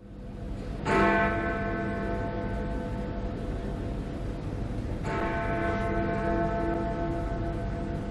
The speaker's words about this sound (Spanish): Esta es la campana de la abadía de Westminster anunciando que el funeral va a comenzar.